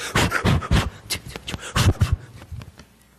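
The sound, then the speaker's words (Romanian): A voice imitates heavy breathing, portraying the biblical Tabitha beginning to breathe again: a run of quick, breathy panting bursts, loud at first and trailing off, with no words spoken. “Hei, a început să respire.”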